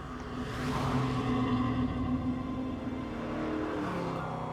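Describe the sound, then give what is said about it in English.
A vintage muscle car's engine roars steadily, its rumbling tone rising and shifting in pitch as it revs and approaches fast, loud and continuous without any voices. “But soon, she saw another car approaching. Some vintage muscle thing her brother would have loved.”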